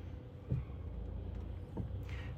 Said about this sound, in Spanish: Ay, perdonad, pero es que estoy aparcando y me estoy encontrando un tráfico en el garaje que flipas.